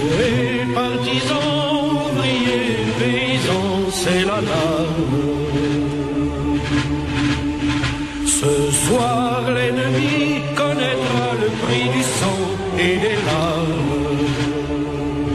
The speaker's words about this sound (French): Vous venez d'entendre le chant des partisans, c'était le chant des résistants français qui combattait le joug des nazis.